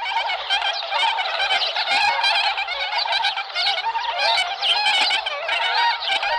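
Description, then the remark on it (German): A dense chorus of honking, nasal bird calls from a large flock of Bewick's swans, overlapping continuously and fairly loud, with no talking. “Der Zwergschwan ist für mich vor allen Dingen deshalb schön, weil er neben seiner Seltenheit, da ist der Ornithologe ja grundsätzlich anfällig, auch einen schönen Ruf hat.”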